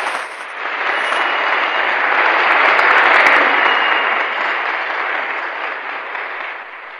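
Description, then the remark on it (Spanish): A crowd applauds steadily for about seven seconds after a poetry recital, a dense wash of many hands clapping that swells slightly in the middle, with a few sharper claps standing out. No one speaks. “Aplausos, por favor.”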